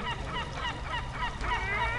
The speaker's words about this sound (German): Alter, hört ihr diese, hört ihr diese Viecher? Das sind äh, Möwen.